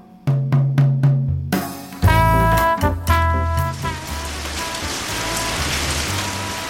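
heavy rain falling

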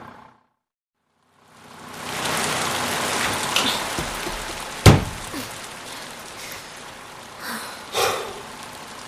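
heavy rain falling

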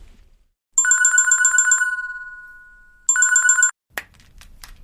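telephone ringing

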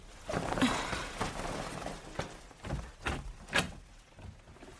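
room door being opened

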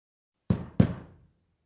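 knocking on a door

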